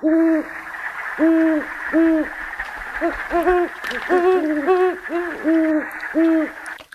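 Great horned owls hoot in a steady series of deep, soft calls, two voices overlapping in a quick back-and-forth, heard clearly over a constant hiss of night insects.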